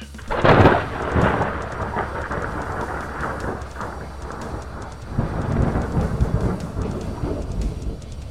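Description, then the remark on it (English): A sharp crack of lightning striking a ring splits the air, followed by heavy rolling thunder that rumbles on loudly with a second surge, with rain hissing underneath. “As lightning struck the ring, Duane felt the adrenaline rushing through his body.”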